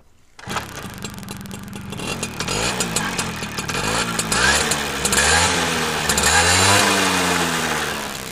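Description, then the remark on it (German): A Töffli moped with a two-speed automatic starts up and revs while riding, its buzzing pitch repeatedly rising and falling as it speeds up and eases off, loud and steady with no voices. “Wir sind wirklich im Töffli fahren. Ihr könnt es selber hören.”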